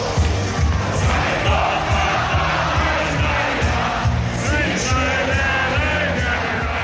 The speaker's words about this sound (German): Die Kapelle spielt wieder … und du hebst die Hände in die Luft und grölst laut mit.